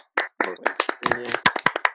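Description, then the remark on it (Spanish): A few people clap in a quick, uneven burst of sharp hand claps lasting about two seconds, with a brief voice or laugh mixed in partway through. “Un aplauso a las personas que nos escuchan.”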